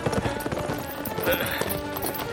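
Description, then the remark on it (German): Horse hooves clip-clop in a steady rhythm over a busy, dense background, the hoofbeats moderately loud throughout. “Wir sollten unsere Pferde in den Wald dort drüben verstecken und uns weiter zu Fuß nähern.”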